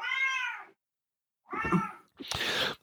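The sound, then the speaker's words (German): A cat meows three times: a long clear meow, a pause, then a second meow and a harsher, raspier cry right after. No one speaks. “Klappe, Katze.”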